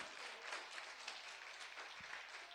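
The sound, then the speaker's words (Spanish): An audience applauds steadily for the Lord after a Bible reading, a dense wash of many hands clapping at once, sustained, with no voices standing out above it. “¿Cuánto dan aplauso al Señor por esta palabra?”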